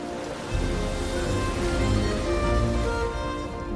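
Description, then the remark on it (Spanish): Steady, soft wash of calm sea water with a low rumble underneath as a sailboat sails across it, gentle waves lapping continuously at moderate loudness, with no voices. “El velero del capitán Diente de Sable navega por las aguas tranquilas.”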